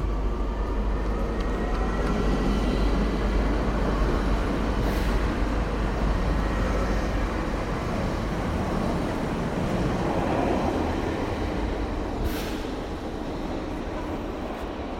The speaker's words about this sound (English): Alors, nous sommes bien arrivés à Monaco-Monte-Carlo euh, dans le train. When you arrive in Monaco by train, the station is actually in a tunnel beneath the, the principality, beneath the, the city.